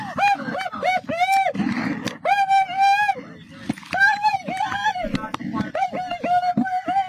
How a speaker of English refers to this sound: Listen, there's a lot of crying, and then we'll get to the dialogue.